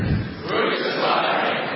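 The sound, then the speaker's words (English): A crowd of many voices shouts back at Pilate together in a loud, sustained roar, the overlapping cries blending into a dense, agitated din that holds steady for a couple of seconds. “But they shouted all the more.”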